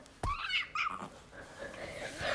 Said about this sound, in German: Wenn du ihn magst, miau zweimal.